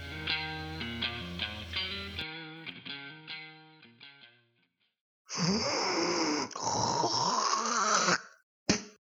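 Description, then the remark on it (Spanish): A short musical jingle plays, then after a pause comes a loud, raspy hawking of phlegm lasting a few seconds, ending with a quick, sharp spit. “Ya, botaste el terrible pollo, loco.”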